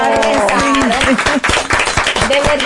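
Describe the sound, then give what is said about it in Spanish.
A crowd applauds with dense, rapid hand clapping throughout, loud, while voices call out and cheer over the clapping. “Y un aplauso para ¡Bravo!”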